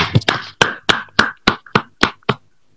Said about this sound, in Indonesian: eh, suara apa tuh deh tepuk tangan oh tepuk tangan iya